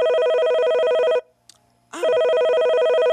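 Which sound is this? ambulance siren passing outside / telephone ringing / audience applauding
telephone ringing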